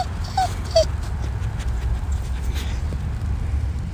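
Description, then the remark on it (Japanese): A dog named Ichiro, scolded for eating cigarettes, whimpers in a few short, high, quivering whines early on, then goes quiet over a steady low background rumble, with soft pawing or tapping sounds later as he nudges a smartphone with his nose and paw. “スマホを鼻つんして手でちょんちょんやってそんなこと言わないでくれよと言ってます”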